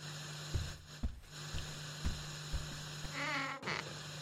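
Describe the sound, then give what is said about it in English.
A door creaks open in a short, drawn-out groan near the end, over a low steady hum and a series of soft, evenly spaced thumps. “The door's right there. I'm going to open. It's fine.”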